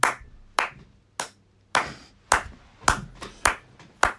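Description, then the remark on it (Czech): A single person claps nine times at a slightly uneven pace, each sharp clap ringing briefly, with no talking. “Ten divný zvuk, který slyšíte, je můj potlesk, přátelé, protože tohle, tohle, to bylo famózní.”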